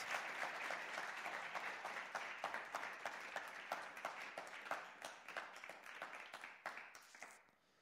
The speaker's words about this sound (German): Wir geben euch einen großen Applaus, während ihr auf die Bühne kommt.